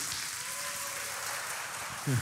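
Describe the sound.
A church audience applauds a man called up to speak, a dense, steady wash of many hands clapping throughout, with a brief voice breaking in near the end.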